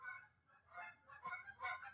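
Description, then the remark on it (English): A goose or duck honks several times in quick succession outdoors, the nasal calls sounding faint, with no talking. “I'm guessing that was some kind of a duck or something out there.”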